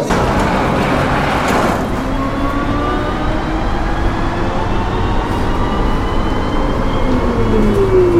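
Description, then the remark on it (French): A metro train in a station in Rennes, France, rumbles loudly, with a brief hiss at the start and rising electric motor whines as it pulls away, steady and continuous with no voices. “Et nous, on va aller se diriger euh, vers le Liberté pour rejoindre le reste de l'équipe de Fréquence Mutine qui anime le plateau radio des trans et on va aller prendre le métro.”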